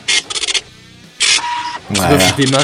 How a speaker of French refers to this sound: Et dans la suite de cette vidéo, très intéressante, eh bien, euh, on y voit le démarrage de l'imprimante, euh, si tendance à cette époque.